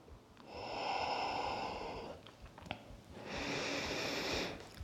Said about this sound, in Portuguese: Quando a postura fica desafiante, a ideia é mesmo que ouças e sintas, sintas ainda mais profundamente a tua respiração.